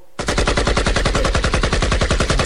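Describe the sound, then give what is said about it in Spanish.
A long, rapid burst of automatic gunfire, some 25 or more sharp shots in a steady fast rhythm, loud, lasting a couple of seconds with no voices. “Se escucharon cerca de unas 25 detonaciones o más, güey.”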